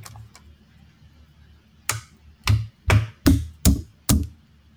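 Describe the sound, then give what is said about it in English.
A hand slaps a microphone six times in quick, slightly uneven succession, each hit a loud, boomy thump with a sharp crack, after two faint taps at the start. No talking. “Slap the shit out my microphone.”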